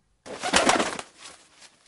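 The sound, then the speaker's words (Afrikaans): A small bird, a canary lying on the ground in the Tsitsikamma forest, flapping its wings but unable to fly, calls in a brief, fluttery burst that peaks and then trails off into softer chirps, with no one speaking. “Eendag toe hy huis toe loop na skool, sien hy 'n kanarie op die grond in die woud lê.”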